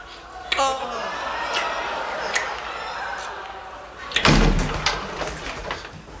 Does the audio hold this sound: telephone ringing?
no